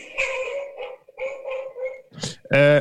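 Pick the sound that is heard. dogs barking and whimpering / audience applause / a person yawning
dogs barking and whimpering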